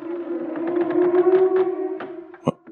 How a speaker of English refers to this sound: what was that? It sounded like a long, drawn out moan, echoey and distant. Was that something on the boat? Something in the water? Or just an ordinary sound of the sea I didn't know about?